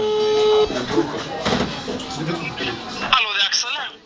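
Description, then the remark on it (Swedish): A phone rings with an incoming call, a steady electronic tone, then warbling, chirpy ringtone notes, loud, with people talking over it. “Nu ringer han här. ska jag sätta på högtalare?”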